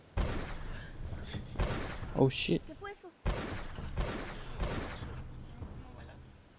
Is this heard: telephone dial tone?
no